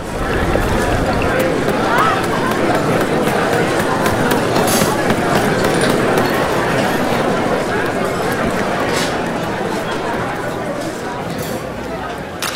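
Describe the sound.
The Contramar restaurant on a Friday afternoon, full of overlapping chatter, a constant loud hubbub of many voices with sharp clinks and clatters of dishes and cutlery scattered throughout.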